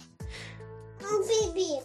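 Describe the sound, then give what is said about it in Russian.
A young child's high-pitched voice speaks in two short bursts, fairly clear, with a brief pause between them and no other sound around. “привет, малыш. У нас неожиданный гость на подкасте.”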